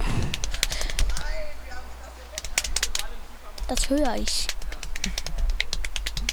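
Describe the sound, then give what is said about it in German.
A rapid, uneven series of sharp slaps of hands on the lower legs keeps going for several seconds while a person speaks briefly over it. “Das Klatschen. Auf was? Auf deine Oberschenkel?”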